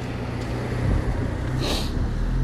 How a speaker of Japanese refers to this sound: はい車が来ました